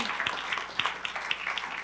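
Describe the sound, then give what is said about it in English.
Sparse, weak hand clapping from an audience after an Easter message, a handful of scattered claps popping irregularly over a soft steady hiss, thin and unenthusiastic rather than full applause. “okay, that would be good, but I still got like a pitiful hand clap on that, all right?”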